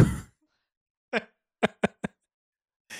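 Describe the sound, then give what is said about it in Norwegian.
A voice mimics a balloon bursting with a few short, sharp mouth pops in quick succession, preceded by a brief breathy sound, with quiet gaps between them and no talking. “Kan jeg uh, få høre ballongen din en gang til?”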